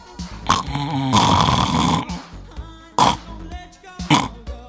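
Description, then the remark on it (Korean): A recording of a person's heavy snoring in their sleep: a short snort, then a long rasping snore lasting about a second, followed by two more abrupt snorts spaced apart, with a steady tonal hum underneath. “야 너 편하고 좋은 뭐 다 좋은데 너 너 어떻게 코고는줄 알아? 내 녹음했는데 들려줄까?”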